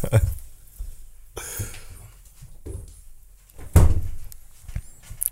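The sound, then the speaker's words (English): A door is nudged open by a fat female cat, giving a couple of dull thumps and rattles, with soft muffled voices and room noise around them. “she opened door as well, didn't she?”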